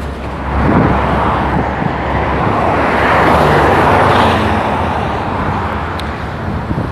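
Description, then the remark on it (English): Steady roar of cars passing on a street, heard by a person waiting to cross around 5:12 p.m., a broad swelling rush of engine and tire noise that rises and fades as vehicles go past, with no voices. “I'm waiting to cross the street. Cars are coming.”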